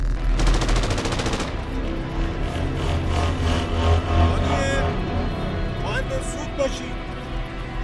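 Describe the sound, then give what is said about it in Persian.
A rapid burst of automatic gunfire rattles out near the start, followed by continued loud, dense shooting that grows heavier and heavier, with clatter in a busy, chaotic mix that never lets up. “صدای تیراندازی شدید و شدیدتر میشد”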